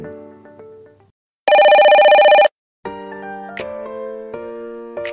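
A loud electronic telephone ring sounds once for about a second, a dense buzzing trill between stretches of soft tonal music that fades in and out around it, signalling an incoming call on Radio Vision's listener phone-in programme Hello Vision.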